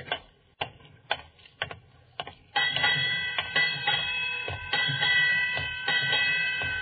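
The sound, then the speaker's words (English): A ship's bell striking eight bells at midnight on New Year: a series of sharp metallic strokes, fairly loud, their ringing tones building and overlapping into a sustained shimmer. No one speaks. “Eight bells.”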